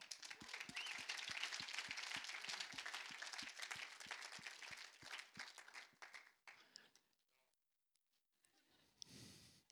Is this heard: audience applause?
yes